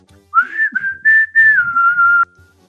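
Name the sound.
whistling a tune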